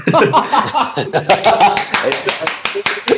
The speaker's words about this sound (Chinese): 掌声响起来。OK，和我看法一样是吧？